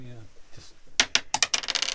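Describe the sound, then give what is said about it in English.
Dice are rolled in a board game, clattering onto a hard surface with a burst of sharp, rapid clicks and rattles, bouncing several times before settling on a six, fairly loud, after a brief quiet lead-in. “Should I roll the dice?”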